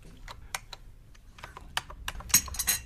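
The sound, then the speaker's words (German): Irregular typing on a computer keyboard by a woman writing books, a quick scatter of crisp clicky keystrokes with brief pauses, picking up into a denser, louder burst near the end, with no voices. “Hauptsache, sie tapst auf der Tastatur herum und macht mir angenehme Gefühle.”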